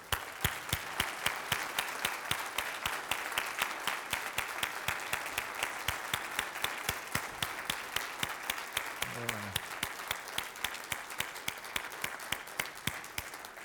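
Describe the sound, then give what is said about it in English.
Sustained audience applause for standing veterans of the armed forces, a dense crackle of many hands clapping steadily for over thirteen seconds, fairly loud throughout with sharp individual claps standing out above the wash. “our veterans of our armed forces, if you would please stand and we give you just a small token of our appreciation, some applause.”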